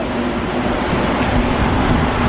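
A Montreal metro train rumbles loudly and steadily, a dense roar of wheels and motor with a faint sustained hum running through it, with no voices.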